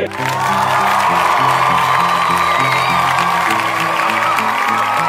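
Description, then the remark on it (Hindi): A loud, continuous wash of cricket crowd applause and cheering as Indian cricketer Washington Sundar arrives at the crease fills all five seconds without a break, with a steady musical tone running underneath. “crease पर आगमन हुआ यूएसए की राजधानी वॉशिंगटन में जन्म न लेकर भारत के तमिलनाडु में पैदा होने वाले वॉशिंगटन सुंदर का शुक्रिया अदा करूंगा उनके माँ बापू जी का जिन्होंने इतना अनमोल रत्न भारतीय क्रिकेट टीम को नसीब कराया तालियां बजती रहनी चाहिए”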